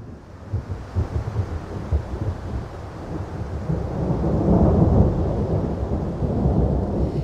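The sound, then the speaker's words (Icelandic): Low, rolling thunder from a lightning storm over southern Iceland rumbles continuously, swelling louder midway through and lingering in a deep, broad roar, with a faint hiss of rain or wind beneath it and no voices. “Samkvæmt upplýsingum frá veðurstofunni hefur fólk ringt inn víða af Suðurlandi til þess að láta við tafa miklum þrumum og eldingum.”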